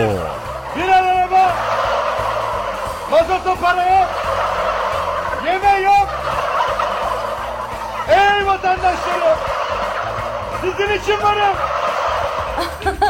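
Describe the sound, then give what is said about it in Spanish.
A flock of turkeys gobbles in repeated bursts, roughly every two to three seconds, their warbling calls overlapping loudly over a steady background murmur. “¡Hey, este sujeto ya se siente realizado al escuchar que sus palabras hacen eco, al sentir que su discurso o informe tienen el apoyo popular, aunque solo sea una multitud de guajolotes o chompipes.”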